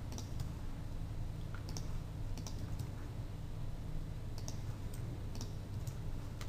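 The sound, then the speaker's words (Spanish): Sharp, quiet mouse clicks come in small clusters as someone clicks on each frame of an animation on a computer, a handful spread over several seconds against a steady low hum of background noise, with no one speaking. “Solamente voy haciendo clic en cada fotograma para que me salga”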